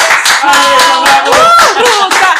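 Audience applause for a departing guest: dense, steady clapping at full volume for a couple of seconds, with voices cheering and whooping over it.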